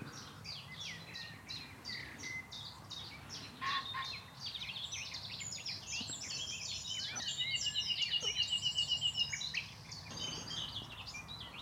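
A nightingale sings buried deep in dense undergrowth, its varied phrases and a rapid, rattling trill tangled among the busy song of garden warblers, with a low background rumble of building traffic.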